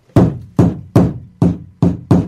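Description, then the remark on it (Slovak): Six sharp, even knocks on a piece of maple wood from a tree felled on a tree-lined street in Trnava, each with a sudden attack and a short resonant decay, steady rhythm about every 0.4 seconds, loud and alone with no voices. “Toto je javor.”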